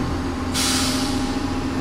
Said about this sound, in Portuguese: Agora estou a fazer eh, Porto Aregos. E quanto tempo é que demora esse trajeto que faz? Neste comboio que é interregional, que para só nas estações, cerca de hora e meia.